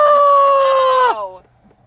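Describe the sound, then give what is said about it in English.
A loud, high-pitched scream from one voice into the microphone, held steady on a single shrill note for about a second before sliding down and trailing off. “I'm not gonna scream into the microphone like the voices in my head do.”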